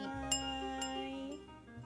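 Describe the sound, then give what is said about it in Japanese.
Two quick glass clinks, about half a second apart, ring out over a steady low hum, the sharp taps fading into a bright lingering ring, as glasses are touched together in a toast. “それでは一緒にいただきましょう乾杯”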